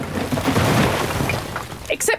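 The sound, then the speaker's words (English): Dense, loud crashing and crumbling noise of the wall between East and West Germany being smashed down in 1989 fills the whole stretch, with a few sharper impacts bursting out near the end. “East and West Germany were unified, and the wall was smashed down”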